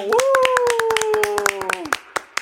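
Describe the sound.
Quick, steady hand claps ring out in a fast even rhythm while a single voice holds a long, loud whooping cheer that slowly falls in pitch; the claps carry on briefly after.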